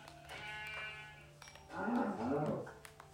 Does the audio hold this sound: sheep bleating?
yes